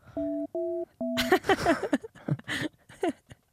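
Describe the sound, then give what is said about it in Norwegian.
Three short, steady electronic telephone tones beep in even succession while dialing a call to someone's mother, clear, then voices start talking over the last tone and continue animatedly. “Ja, det, men da får vi prøve å ringe mamma, da.”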